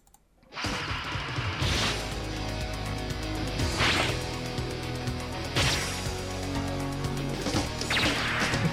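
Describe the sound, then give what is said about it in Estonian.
Loud, dense intro music kicks in after a brief silence, with sustained tones underneath and a cymbal-like crash landing roughly every two seconds; no one speaks. “nüüd äh, palun kuulake järgmist äh, muusikat. see on intro.”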